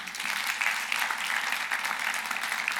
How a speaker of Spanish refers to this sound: Podemos dar un aplauso al Señor, ¿por qué no?